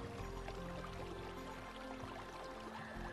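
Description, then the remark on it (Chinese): Water of the Tuo River flows steadily beneath a large arch bridge joining its two banks, a continuous babbling rush with soft splashy detail that stays even and moderately quiet throughout, with no voices. “连接两岸的巨大拱桥横架在沱江之上，被流水冲刷过，涓涓作响。”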